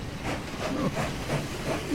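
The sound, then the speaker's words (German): A steam locomotive chugs steadily along, its rhythmic puffs of steam repeating about three times a second over a constant breathy hiss and low rumble, moderately loud. “Geknickt fuhr Opa Adler zurück zum Bahnhof.”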